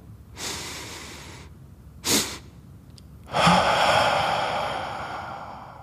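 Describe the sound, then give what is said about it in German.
A long, deep breath drawn in, then a short second sniff of air on top, followed by a long, steady breath blown out through the mouth, demonstrating the physiological sigh breathing technique. Clear, with no talking. “Da atmet man tief ein, so tief wie man kann und dann atmet man nochmal ein.”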